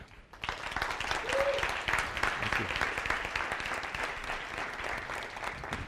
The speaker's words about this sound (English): You want to give her another hand